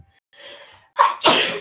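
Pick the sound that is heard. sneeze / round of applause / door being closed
sneeze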